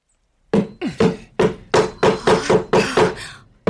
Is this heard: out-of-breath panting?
no